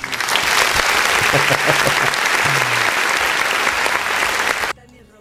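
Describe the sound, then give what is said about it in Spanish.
Steady applause from a crowd, called for at the mention of former Mexican president Enrique Peña, dense and fairly loud, with faint voices mixed in, lasting several seconds before cutting off abruptly near the end. “Sí, échale un aplauso.”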